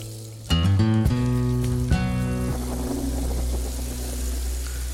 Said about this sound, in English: And i got to say, I love the start. Listen, I love that rain. It sounds good, doesn't it?